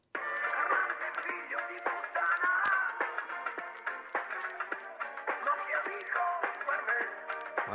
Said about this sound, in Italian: ora hanno fatto una nuova canzone sullo stesso stile